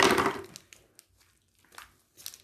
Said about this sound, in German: Jetzt so eine ganz lange Cola-Schlange. Ja. Ich tue es gerade aufmachen, die Verpackung.